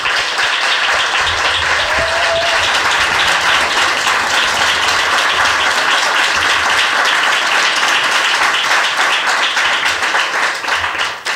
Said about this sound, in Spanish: Así que vamos a ver cómo, es, eh, suena aquí el primer aplauso, que es un aplauso lleno de prestigio, porque romper el hielo y es como todos nos vamos a acercar mucho más. A ver cómo suena un aplauso aquí, Vanguard.